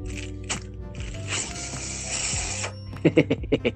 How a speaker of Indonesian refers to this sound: Apa sih yang kresek-kresek ini?